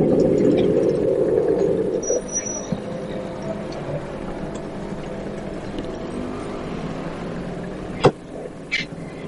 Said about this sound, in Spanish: Luego el taxi donde va al monte atraviesa el paso a nivel y se detiene.